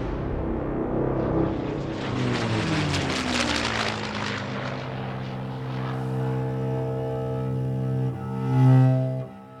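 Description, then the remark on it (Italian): A loud propeller aircraft, an enemy warplane over Turin, Italy, during the Second World War, roars overhead, its droning engine tone sliding lower in pitch as it passes, then rising again briefly near the end. No voices. “Torino è vicino al confine e ben presto diventa il bersaglio degli aerei nemici.”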